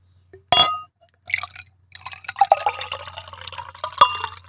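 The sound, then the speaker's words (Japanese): A sharp clink of glass, then a few seconds of red wine pouring from a bottle into a glass, bubbling and splashing, ending with another light glassy tap. No one speaks. “なんかね、やっぱあの、うん最初のね、そうそう継ぐ音じゃないと、ここう瓶のやつはね。”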